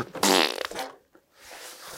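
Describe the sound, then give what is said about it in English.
A short, loud, buzzy fart sound effect bursts in, sputtering for about half a second, then trails off into a brief quiet stretch and soft background noise. “Fart sound.”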